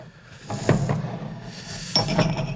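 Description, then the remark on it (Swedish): Drinking glasses clink and knock together as they are set out, a few sharp taps in two loose clusters over a quiet background, with no talking. “Fram glas nu.”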